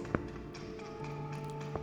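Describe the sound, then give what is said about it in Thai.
Two dull knocks on the concrete wall of a rented dormitory room, spaced more than a second apart, heard faintly over a quiet, steady background hum with no voices. “เพราะหอที่เราเช่า มันเป็นหอที่สร้างจากปูน นาทีนั้นผมเริ่มได้ยินเสียงเคาะดังออกมาจากผนังห้องตามโดยเสียงหัวเราะตอกกระสิก”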